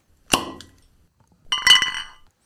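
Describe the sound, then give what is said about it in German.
A sharp pop as a bottle is uncorked, then a pause and a burst of bright, ringing glass clinks that chime together and fade out. No voices are heard. “Bevor wir jetzt weitermachen mit den acht Mannschaften, die auch beim Bounce House Cup teilgenommen haben, wollen wir kurz aufkorken.”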